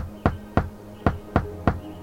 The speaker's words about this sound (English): He thought, we should have a code. He tapped out a pattern on the railing.